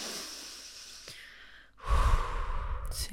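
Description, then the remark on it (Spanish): A slow, deep mindful breath: a soft, airy inhale followed by a louder, fuller exhale, with no talking. “Mindfulness es como en todo el día, en todo el momento, tú puedes conectar con tu respiración, como”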